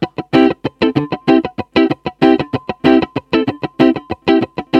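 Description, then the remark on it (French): Electric guitar plays a funk rhythm of short, choppy chords with a distorted, effected tone, not playing every note, the strums hitting in a tight syncopated pattern with gaps between bursts. “Donc en fait, euh, ce qui est intéressant, c'est que c'est une rythmique funk dans lequel on va pas, on va pas jouer.”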